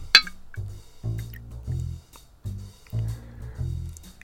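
A sharp pop of a bottle being opened, then a drink (not beer, tasting of ginger) poured out in a series of rhythmic, hollow glugs, with no one speaking.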